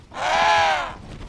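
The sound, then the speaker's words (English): A penguin in the Antarctic gives one loud, harsh, nasal call lasting just under a second, on its own, with no other sounds around it. “But as an Antarctic naturalist, a scientist who studies living creatures and their habitats, I'm here to see what all the cold weather critters who've adapted to this dry, chilly climate are up to, like the albatross, the penguin,”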